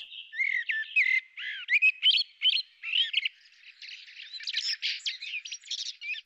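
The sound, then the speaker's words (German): A common blackbird sings a continuous, varied song of fluting whistles, warbles and chattering notes, clear with no other sounds around it. “Also das ist eine ganz typische Struktur von so einer Strophe, wie so eine Amsel singt.”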